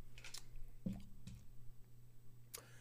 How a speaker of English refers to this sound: This ice, ice in my water.